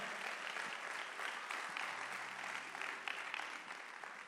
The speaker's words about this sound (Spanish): Alguien le puede dar un aplauso. Alguien está aquí todavía.